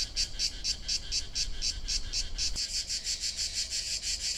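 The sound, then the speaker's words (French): Cicadas in Provence chirp in a steady, pulsing drone, a rapid series of bright buzzing bursts repeating several times per second, fairly loud, with no voices and only a faint low rumble beneath. “Méditer en Provence avec le Chant des cigales”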